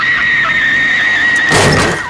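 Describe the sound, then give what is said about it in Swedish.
A sustained high-pitched screech like skidding tires holds steady as a car approaches, then a loud, sudden crash bursts in near the end as the car strikes something, with no voices. “Där borta så ser vi eh, lykten av en bil som kommer närmare och närmare.”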